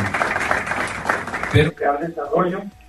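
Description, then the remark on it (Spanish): A burst of crowd applause for the laying of the first stone of a housing development in Puebla, dense and fairly loud, fills the first second and a half, then fades as a man's voice starts speaking. “Otro fuerte aplauso por este paso tan importante de esta primera piedra que se coloca de este desarrollo habitacional.”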